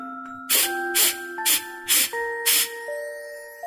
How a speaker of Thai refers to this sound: หายใจแบบกระต่ายนะ เงยหน้าขึ้นสูดหายใจเข้าเร็วๆ สามสี่ครั้ง